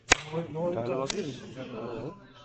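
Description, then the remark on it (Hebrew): Two sharp hand claps, the first right at the start and a second about a second later, expelling air between the palms, cutting through a man's ongoing speech. “כמו שאנו רואים בחוש, שנסגר יש אוויר על ידי מחוז כפיים.”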